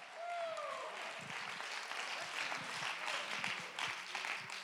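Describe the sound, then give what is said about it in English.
Many hands clap in praise of God in a dense, steady wash of applause with a few cheers or voices rising through it, including a brief whistle-like tone near the start. “Somebody clap your hands, lift your voice.”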